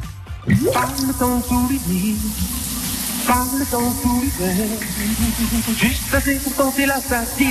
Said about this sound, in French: Que d'eau, que d'eau, puisque dans la salle de bain, on avait la fontaine.